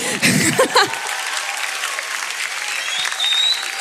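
An audience bursts into steady, dense applause for a piece of art, carrying on for several seconds, with a brief voice rising over the clapping at the start.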